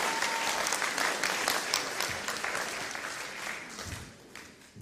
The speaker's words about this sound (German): Applaus für unseren König. Super gemacht.